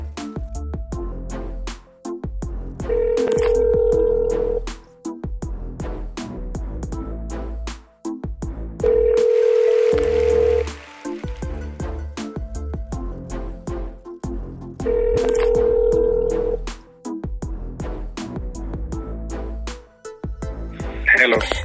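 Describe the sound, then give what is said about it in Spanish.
A telephone ringback tone sounds three times as a phone call is placed, each steady buzz lasting about two seconds with long gaps between, over a rhythmic beat playing throughout. “Oye, hermano, si supieras que te he estado llamando y me tiraba el mensaje.”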